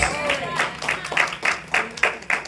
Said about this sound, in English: Can the church give God a good hand clap of praise?